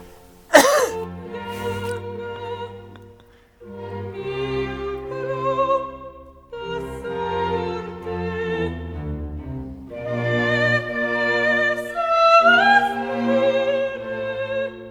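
Countertenor Max Emanuel Cencic sings a very famous Handel opera aria, sustained and ornamented over steady low instrumental accompaniment, the high voice carrying long held notes with vibrato after a brief sharp sound at the start.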